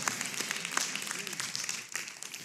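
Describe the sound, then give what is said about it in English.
An audience in Chicago claps steadily, a dense wash of many overlapping hand claps with sharp individual slaps poking through, continuous and moderately loud for a few seconds, with a faint murmur of voices underneath. “You see, you're clapping because, because it's cloudy in Chicago.”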